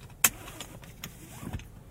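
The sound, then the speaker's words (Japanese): A car seatbelt is unbuckled: one sharp metallic click of the latch, then a few soft, faint rustles and light thuds inside a quiet car that has just been parked. “こういうね今シートベルトを外したりとかエンジン切ってみようか”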